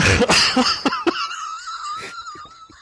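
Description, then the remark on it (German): A sudden, noisy sneeze bursts out, followed by a few sharp clicks and a drawn-out, high, wheezy whistling breath that trails off, with no talking. “ja, Gesundheit.”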